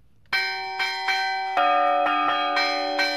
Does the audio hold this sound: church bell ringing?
yes